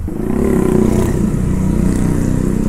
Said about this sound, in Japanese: 道道路はうるさいねこれ多分ねステレオマイクはね環境音よく拾うんですよ指向性がないだからもうねすげえうるさいと思うんだよね